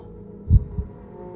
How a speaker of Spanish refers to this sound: Mi corazón empezó a latir fuertemente. Que lo alcanzaba a escuchar